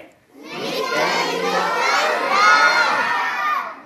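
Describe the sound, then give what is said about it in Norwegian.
A large group of children in the audience of a children's theatre show shouting loudly in unison after a count to three, a sustained, energetic collective yell lasting a few seconds with overlapping high-pitched voices. “Og så roper vi midt i litt av fjellreir, sånn at denne pila går til ti.”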